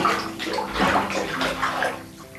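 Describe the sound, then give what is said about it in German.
Normal tap water pours steadily into a disinfected bathtub, a continuous splashing rush with bubbly gurgles, fairly loud, with no voices. “Selbstverständlich wurde die Wanne, bevor das normale Leitungswasser hinein geströmt ist, desinfiziert ebenso meine beiden Hände.”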